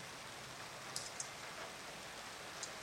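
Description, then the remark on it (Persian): Soft, steady hiss of fine drizzle falling, with a few faint scattered drop ticks standing out here and there; quiet and even throughout, no voices. “از اون بارون ریز ریزاست که خیلی دوست دارم”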